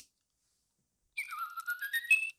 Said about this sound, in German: so, ne, das ist relativ unspektakulär. Er fängt jetzt erstmal an zu pfeifen.